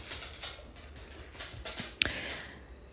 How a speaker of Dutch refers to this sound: Je hoort misschien wat achtergrondgeluiden van, eh, van mijn honden die op het laminaat lopen.